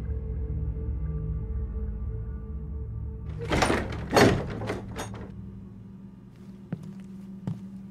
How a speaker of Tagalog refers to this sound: Pagdating sa loob ng ancestral house, ay agad na kinandado ng daddy ni Jane ang mga pintuan at mga bintana. Nagpatulong pa ito kay Larry.